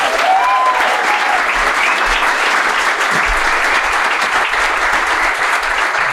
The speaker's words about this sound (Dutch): Oké, okay, mag dan een keihard applaus voor twee legends. Glenn Helder en Sander Westerveld.